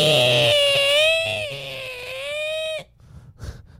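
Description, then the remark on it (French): A voice mimics the only sound the speaker managed to get out of a bowed string instrument when trying to play it: a screechy, strained, wavering, nasal tone held for nearly three seconds, then breaking off into breathy noise. “Man, le seul son que j'ai réussi à sortir, c'est un genre de son comme celui.”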